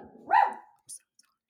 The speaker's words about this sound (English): Did you hear the dog? Yes, but that that's just real life.